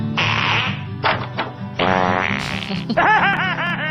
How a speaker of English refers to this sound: Well, I like farts. Ah! Yes, I like farts. I like long farts, short farts, wet farts, your farts. I like farts.